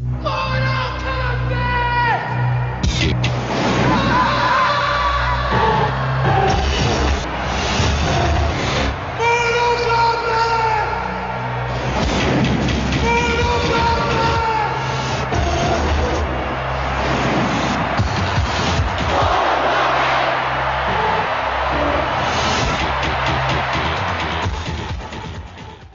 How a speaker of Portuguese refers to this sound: tem uma propaganda de 1993, que eu não sei se vocês já viram, que é um molequinho gritando Mortal Kombat no meio é, da rua